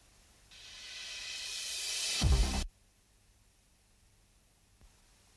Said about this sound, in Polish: Ja tutaj wyciszę mikrofon na razie, żebyśmy dokładnie posłuchali i żeby mógł dokładnie wskazać obszar szumu.